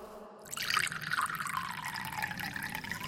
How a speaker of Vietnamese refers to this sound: Người phụ nữ lại nâng chai rượu, rót thật đầy vào ly cho cậu.